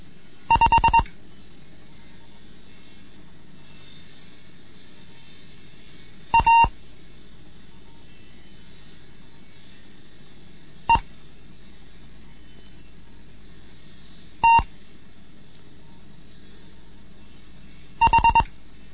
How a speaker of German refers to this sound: mit dem Morseunterricht Sechste Lektion